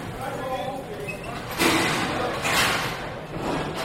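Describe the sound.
Metallic clunks of a mine turnstile turning as many workers pass through at an 11 o'clock shift change, two sharp bangs standing out over a steady hum of indistinct voices and footsteps.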